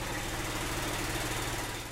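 A motor-driven air compressor, used while repairing a punctured tractor tyre, chugs steadily and loudly, its low rhythmic engine pulse continuous with no pauses and no voices.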